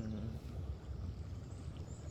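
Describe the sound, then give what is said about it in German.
A steady outdoor ambience of rushing water mixed with the low hum of passing cars and an airplane's drone, forming a continuous, even rumble with no voices. “Oh, ra oh Rauschen. Autos, Flugzeug, hm. Wasser.”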